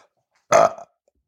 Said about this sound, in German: Der Rülpser muss da am Anfang so hin.